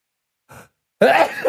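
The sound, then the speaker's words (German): A single loud sneeze: a short sharp intake of breath, a brief pause, then an explosive, breathy burst with a voiced edge. “Gesundheit.”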